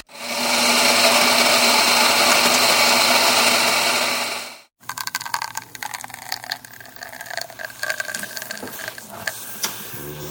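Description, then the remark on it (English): The steam wand of a La Pavoni espresso machine hisses loudly and steadily for several seconds, then cuts off abruptly, followed by clattering, knocks and clicks of equipment being handled. “so this is just obligatory steaming sounds.”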